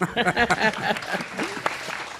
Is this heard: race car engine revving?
no